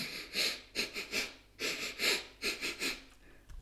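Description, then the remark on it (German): A breathy sequence of rapid sniffing inhales through the nose followed by quick exhales, in two clusters of about three short bursts each, with no talking: a breathing exercise of three quick nasal inhales and three exhales for quick energy. “Und da gibt es eine kleine Übung, wenn wir einfach schnell Energie brauchen, wir atmen dreimal schnell durch die Nase ein und dreimal aus.”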